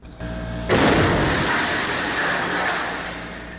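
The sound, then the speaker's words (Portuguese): After a low, steady hum, a single loud explosion bursts out abruptly inside a bank branch during a robbery, set off by a cylinder placed in a room, followed by a sustained roaring, crackling wash of noise that slowly fades; harsh, with no voices. “O outro posiciona um cilindro dentro de uma sala. Em seguida, todos correm e acontece uma explosão.”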